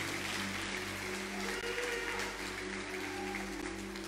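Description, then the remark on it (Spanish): A church audience claps loudly and steadily as an offering of applause to the Lord, a dense wash of many hands that holds at an even level throughout, with a low electrical hum underneath and no voices standing out. “Dale una ofrenda de palmas al Señor, dásela fuerte, la fuerte.”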